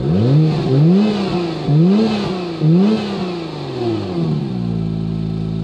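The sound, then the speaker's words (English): A sports car engine, switched into track or race mode, revs hard four times in quick succession, each rise climbing and falling sharply, then settles into a steady low idle; loud, with no voices. “I put it in, in the in the quiet mode, went to the sport mode, and then full track mode or race mode”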